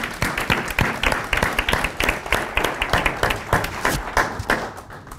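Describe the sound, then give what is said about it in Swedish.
An audience claps steadily for several seconds for a guest, a dense, sustained patter of many hands, with no voices standing out over it. “En applåd”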